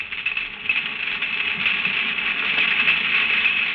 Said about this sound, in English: That noise is made by snapping their claws together.